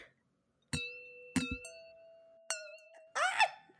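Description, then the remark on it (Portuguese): Glasses clink together several times in a toast, each bright strike ringing out with a sustained tone, ending in a busier, clattering clink; no one speaks. “Não Meu quebra a taça, mulher.”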